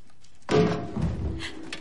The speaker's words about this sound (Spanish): De día en la casa del páramo, Vanessa corta pan.